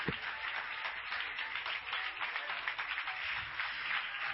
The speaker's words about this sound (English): Is this all right today? Would you clap your hands to the Lord right now?